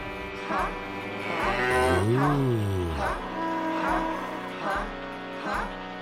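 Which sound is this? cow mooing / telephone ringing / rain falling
cow mooing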